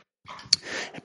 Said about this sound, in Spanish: perdonen por el ruido que los perros están corriendo alrededor mío